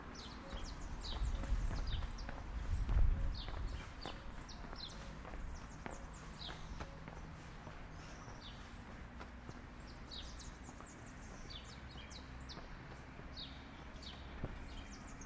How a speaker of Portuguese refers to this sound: eu estou escutando pardal.